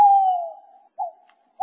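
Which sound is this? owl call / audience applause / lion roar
owl call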